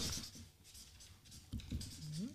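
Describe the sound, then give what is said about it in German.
Scratchy pen strokes as a name is written on a small name tag, a quick series of short scribbling movements with brief pauses, clear, while a voice murmurs faintly near the end. “Also Stift ist am Start. Gut. Ja. das Schildchen das. auch.”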